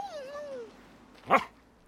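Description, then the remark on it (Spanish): A dog, Titán, lets out a thin, falling whine, then after a short pause gives one sharp bark, at a church. No one speaks. “No le pregunté si podría traer a mi perro, hermana.”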